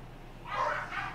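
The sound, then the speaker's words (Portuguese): The speaker's own dogs barking as they fight, two faint, muffled bursts close together, one longer than the other, over a low background hum. “Tem uns cachorros latindo aqui, talvez vocês estejam pegando.”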